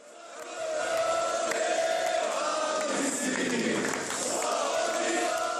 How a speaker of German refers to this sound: Bei seiner Ankunft am Flughafen in Zagreb im Jahr 2014 wurde er von mehreren Kamerateams und hunderten jubelnden Anhängern im Terminal empfangen wie ein Held.